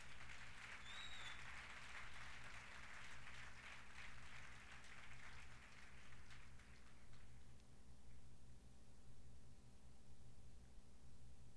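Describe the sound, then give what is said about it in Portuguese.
A church audience applauds the Lord steadily, a dense wash of many hands clapping that fades out over the last few seconds, leaving a low steady hum underneath. “Você pode aplaudir ao Senhor, faça isto.”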